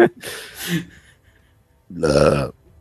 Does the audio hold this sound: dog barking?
no